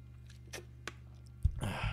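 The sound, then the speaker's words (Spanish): Someone takes a couple of quiet sips of water, then a soft thud, like a glass being set down, followed by a breathy exhale. No one speaks. “Perdón, por eso necesito un poco de agua.”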